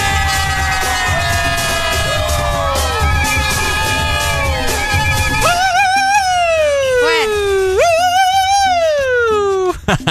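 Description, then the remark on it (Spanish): A voice imitates an ambulance siren, loud, wailing in long rising and falling sweeps that grow clearer after a busy, layered stretch of other sounds at the start. “Pareces ambulancia vos.”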